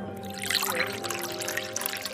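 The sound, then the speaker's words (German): Water pours steadily into a glass for a couple of seconds, a continuous splashing trickle with a faint ringing tone underneath, and no voices. “Ergänzt um die Aussage, das ist Wasser.”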